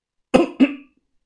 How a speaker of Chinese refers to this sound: 看目标迎面走来，我故意咳嗽了一声。